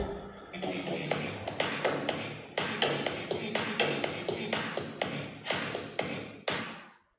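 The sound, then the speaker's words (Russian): A stream donation alert plays, signalling a donation from Anastasia: a busy, rhythmic jingle of bright percussive taps falling roughly twice per second over a tonal, mid-pitched layer, fairly loud and steady for several seconds before cutting off. “Это пришел донат Анастасии.”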